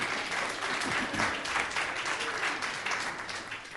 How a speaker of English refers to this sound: I think a round of applause is appropriate.